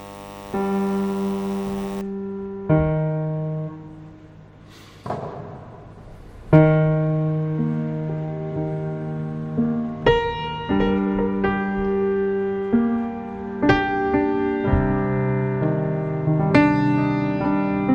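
A slow instrumental piano song from a concert, with rich, sustained chords struck every few seconds and ringing out into one another at a steady, moderate volume. No voices are heard.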